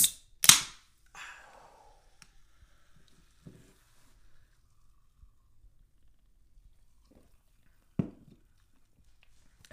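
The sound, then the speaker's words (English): A soda can cracks open: a sharp double click and pop, then a short fizzing hiss. Quiet follows, broken by a single solid knock several seconds later. “The noise of opening can.”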